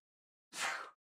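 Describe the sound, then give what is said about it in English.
A single short sneeze, an abrupt breathy burst lasting under half a second, heard on its own against silence with no talking around it. “Gesundheit.”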